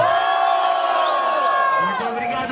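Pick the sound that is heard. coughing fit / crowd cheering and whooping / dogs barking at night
crowd cheering and whooping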